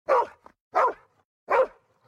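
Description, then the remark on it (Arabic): Three sharp dog barks ring out in a steady rhythm, each short and loud with a brief pause between, with no one talking. “عندها كلبة جولدن بتحوه بالساعات لو تخيلناها ساكنة بالطابق الأرضي والكلب عم يعوي طول اليوم”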